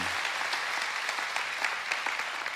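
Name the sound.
audience applauding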